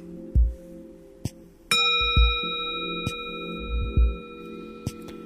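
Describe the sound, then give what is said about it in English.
A bell with nothing attached to it, struck with a wooden stick, rings out clearly once, its bright overtones sustaining and slowly fading, while soft knocks and taps sound around it with no talking. “So if bell does not have anything extra on it, create a beautiful sound by me touching my touching the the bell with a wooden stick. So I try it again.”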